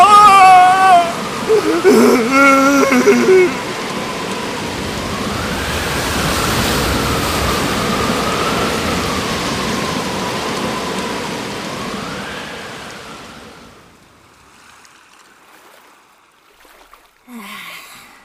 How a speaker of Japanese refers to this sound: こんなひどい嵐は生まれてこの方